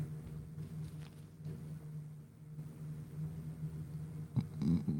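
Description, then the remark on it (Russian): A motorcycle engine starts outside, a low, steady droning rumble with a brief louder rev near the end. “Мотосракер завелся.”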